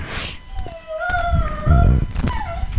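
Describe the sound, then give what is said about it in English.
Dogs whine to be let out in high, drawn-out tones that waver and slide in pitch, with a second whine rising near the end and some low shuffling or thumping underneath; fairly loud. “Hey, you want to let the dogs out, honey?”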